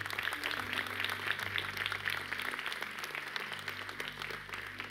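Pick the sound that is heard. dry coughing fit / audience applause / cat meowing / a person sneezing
audience applause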